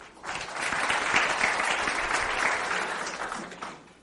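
A crowd applauds for about four seconds, a dense, steady wash of many hands clapping that swells quickly, holds loud and even, then tapers off at the end.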